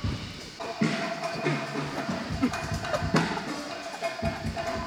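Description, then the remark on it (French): Drummer Cyril Atef soundchecks a drum kit, with scattered, irregular hits and a ringing, cowbell-like metallic clank over a steady wash of cymbal noise. “Il y a Cyril qui fait ses balances et qu'on entend.”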